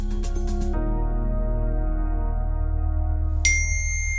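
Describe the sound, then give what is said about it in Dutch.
A bright, clear phone notification ding sounds once near the end, over a steady backdrop of sustained musical tones that follow a brief rhythmic pulsing at the start. It is the phone of a 72-year-old man in Utrecht, a message from his daughter. “Het geluid van zijn telefoon haalt de 72-jarige Dirk terug naar de realiteit.”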